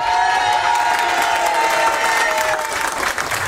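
A crowd applauds and cheers steadily, a dense wash of clapping with whoops and shouts, holding loud and even throughout with no speech over it.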